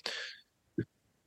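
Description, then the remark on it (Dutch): A harsh, breathy cough burst followed by a shorter throaty cough a moment later from a person who is very ill, fairly loud, with no talking. “Er wordt nog een kleine kuchpauze ingelast.”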